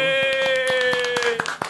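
Hands clap in a quick, slightly uneven burst of about ten sharp claps, fairly close, while a steady sustained tone hums underneath.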